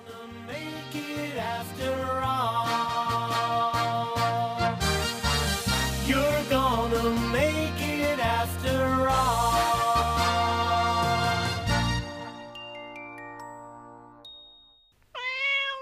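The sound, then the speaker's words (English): Upbeat instrumental music plays for several seconds, fades out, and then a single clear meow from Mimsie the cat, mascot of the television studio MTM Enterprises, heard at the end of the Mary Tyler Moore show, sounds alone at the very end. “I used to hear Mimsie at the end of the Mary Tyler Moore show.”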